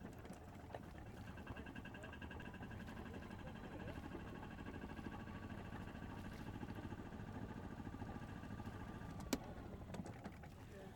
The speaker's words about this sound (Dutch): Ja, er gebeurt helemaal niks. We liggen ramvast. Zal ik de motor uitdoen? Ik denk het ook.